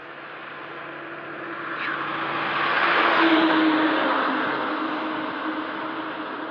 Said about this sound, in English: That's the sound of fracking, kids. That's a big water truck carrying water to and fro some fracking site. Quite loud, huh?